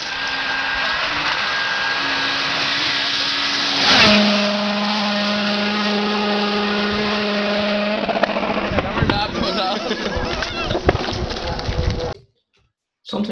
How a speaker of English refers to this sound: Listen to this for commitment from the Donegal Rally 2006. Andrew and James flat out in the Mitsubishi WRC in the rain.